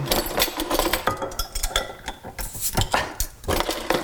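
Metallic clinking and rattling as a beer bottle taken from the fridge is opened in a kitchen, with a busy run of sharp clicks and scrapes over about four seconds and no voices.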